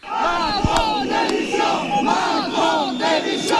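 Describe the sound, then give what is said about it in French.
Several hundred protesting farmers shout and jeer continuously at the Agricultural Show (Salon de l'Agriculture) in its 60th edition, awaiting the President of the Republic, many overlapping angry voices forming a loud, dense, echoing roar with occasional sharp yells and whistles rising above it. “plusieurs centaines d'agriculteurs avaient réservé un comité d'accueil au président de la République, qui a mis plus de 4 heures avant de pouvoir couper le ruban, le ruban de cette 60e édition.”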